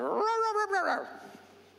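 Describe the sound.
A small dog gives a single drawn-out whimper, a high, wavering whine that rises and falls for about a second, then fades into quiet background.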